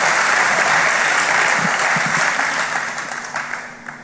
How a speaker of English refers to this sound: Can we get a good clap in the hand, in the house of God?